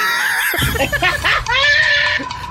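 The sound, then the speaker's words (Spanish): A person loudly imitates a mare's whinny, a strained, high, quavering vocal cry lasting a couple of seconds with wavering pitch. “es que mi shirt suena como una yegua.”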